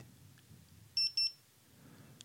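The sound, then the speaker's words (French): A fall detector, a man-down detection device being moved about as it is set up, gives two short, high-pitched electronic beeps in quick succession, loud, over a faint low background hum. “Alors ça fait bip, un bip bizarre.”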